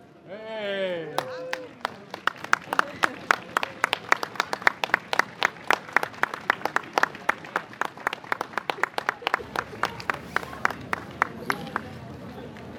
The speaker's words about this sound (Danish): så er fakkeltoget nået frem til slottet, og vi er nu inde i Indre Slotskov. Og da hendes majestæt dronningen kommer frem i døren, klappes der.